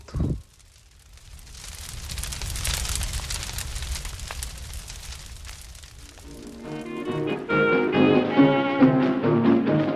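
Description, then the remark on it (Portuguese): A São João wood bonfire crackles and pops steadily over a low roaring rumble for several seconds, then bright, upbeat music comes in and plays over it. “Sou de lenha, sou de fogo e aqueço o povo todo.”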